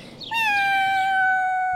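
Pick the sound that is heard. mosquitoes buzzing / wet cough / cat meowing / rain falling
cat meowing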